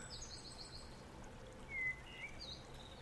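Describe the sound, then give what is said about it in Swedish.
A steady, soft rush of running water fills the whole clip, with faint bird chirps and thin whistles rising briefly above it. “Hör vi kanske vatten som rinner.”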